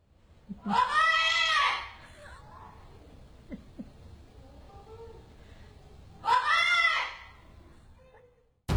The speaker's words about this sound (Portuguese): Se você está ciente e deseja continuar, permaneça na linha após o papagaio da minha vizinha gritar mãe.